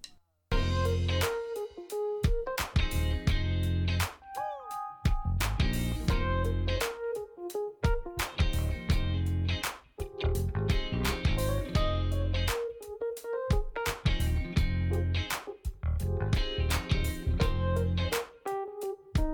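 A song plays loud and full, with a driving steady beat, punchy percussion hits and a heavy bass line running continuously throughout.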